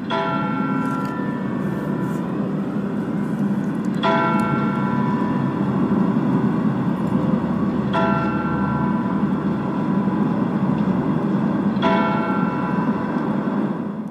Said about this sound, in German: Mit dem Glockenschlag um 14 Uhr geht der Motorradgottesdienst zu Ende. Wir hören jetzt zunächst die kleine Glocke des Michels, die mit vier Schlägen die volle Stunde ankündigt.